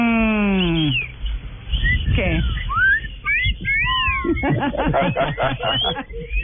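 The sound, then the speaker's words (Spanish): Blackbirds call excitedly in a flurry of quick, bright whistled chirps and swooping notes, loud and overlapping, while people talk over and around them. “No, pero los mirlos, pues. Y un mija. Están muy emocionados.”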